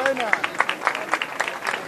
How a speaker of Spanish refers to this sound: Y una vez más los aplausos del público que como digo eh, se agolpa aquí en esta zona. Quizás la, buena temperatura que está haciendo ahora por la noche, mucho menos calor, ha animado a la gente a ya acompañar a la parte final de esta de esta cofradía